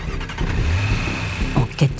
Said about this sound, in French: Ivre de rage, il remonte dans sa voiture, redémarre